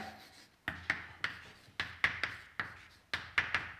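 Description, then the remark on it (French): Chalk writing on a blackboard during a physics lecture as the Hamiltonian of a model of bosons hopping on a lattice is written out: crisp taps and short scratchy strokes, often in quick pairs, repeating in a steady rhythm with brief pauses, clear and fairly loud with no talking. “Bien, alors donc revenons à, notre modèle, et comme il est bon de garder l'hamiltonien en tête, je vais l'écrire au tableau.”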